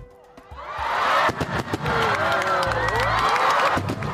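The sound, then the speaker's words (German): Fireworks rockets whistle and crackle over a cheering crowd, with sharp pops and gliding whistles rising and falling through a loud, steady roar of celebration. “Und jetzt noch die Raketen.”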